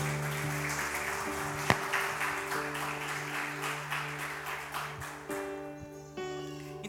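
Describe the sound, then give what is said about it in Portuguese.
An audience applauds Jesus during a church sermon, a dense wash of many hands clapping over sustained organ-like chords, with a few sharper claps standing out before the applause begins to thin. “Aplauda Jesus por isso.”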